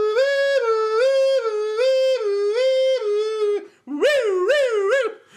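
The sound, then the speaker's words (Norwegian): A person imitates a police siren with their voice: a long, loud wavering wail pulsing about twice a second, a brief break, then quicker, higher whooping rises and falls. “Politisirene, politisirene? Det er ikke noe problem for meg.”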